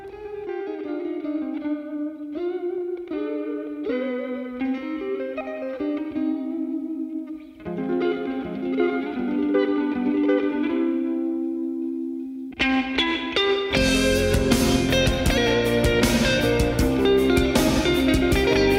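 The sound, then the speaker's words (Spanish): A recorded song opens with an effects-laden electric guitar picking a melodic riff, moves into sustained ringing chords, then the full band with pounding drums and distorted guitar crashes in loudly. “Vámonos a escuchar esta canción,”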